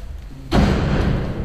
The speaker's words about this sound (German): Birgit Wulff stemmt die Tür zum Außenbereich auf.